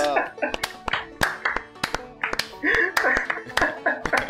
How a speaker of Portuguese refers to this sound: palma descompassada, né? Palma bem descompassada, assim, que a gente não esperava essa reação.